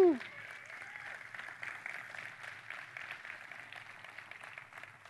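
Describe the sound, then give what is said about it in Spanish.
A church audience applauds steadily for several seconds for a couple married the day before, a dense, even wash of clapping after a brief vocal whoop at the start. “Vamos a darle un aplauso a ellos.”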